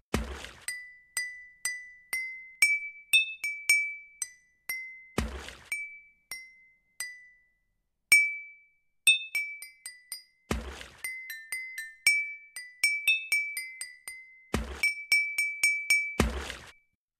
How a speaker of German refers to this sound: Wasserorgel, die vierte.